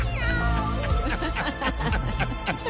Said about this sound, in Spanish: ¿Será que la gata seguía llorando?